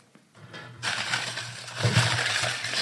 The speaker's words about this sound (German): Ich knuspere mal hier im, äh, in der Box.